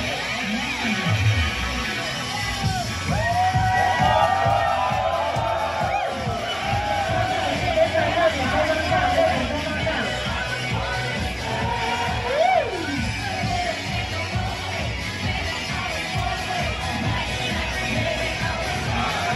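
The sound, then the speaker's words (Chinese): A dense crowd cheers and shouts continuously at a transgender pride parade, with whoops and yells rising above a steady roar of many voices, loud and sustained throughout. “刚听到的呢，就是跨性别游行当天的一些录音跟精彩片段了。”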